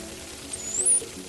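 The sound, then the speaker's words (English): A dolphin whistle to other dolphins to communicate: a short, thin, high-pitched tone sweeping upward over about half a second, set against a soft, steady underwater hiss and low rumble. “Dolphins whistling to each other to communicate.”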